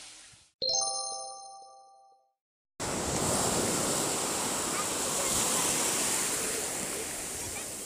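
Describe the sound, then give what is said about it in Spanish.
A bright chime rings and fades, then after a short silence the loud, steady roar of ocean waves breaking on a beach washes in and continues to the end. “se metía en el agua, en la playa”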